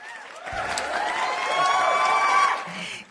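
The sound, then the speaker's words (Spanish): A small group bursts into steady clapping mixed with cheers and whoops, swelling over a few seconds before fading at the end. “No nos vamos a reír, te vamos a dar un aplauso.”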